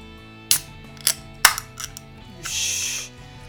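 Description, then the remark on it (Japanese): A beer can being opened for pouring: a few sharp metallic clicks from the tab, then a short burst of hissing gas as it pops open, fairly clear with no talking. “まあまあそれはいいとしてじゃあ開けてついていきますね開けます”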